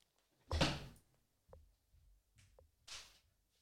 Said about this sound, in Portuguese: deixem me só fechar a porta que me percebi que não a fechei.